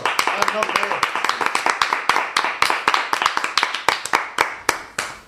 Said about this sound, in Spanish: Un Un fuerte aplauso.